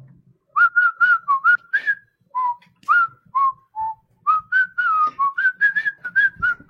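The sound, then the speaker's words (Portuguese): A person whistles the theme tune of the 1993 film Super Mario Bros., a quick run of clear, bright notes rising and dipping in short phrases with brief pauses, loud and alone without any talking. “Ah, ah, ele assobiou o cachorro aí.”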